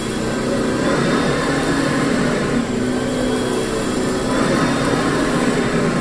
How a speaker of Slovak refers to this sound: Nepoznám nič krajšie, ako prejsť vysávačom po povrchu, čo vezme špinu. Dajme si zvuk vysávača. Toto je ono.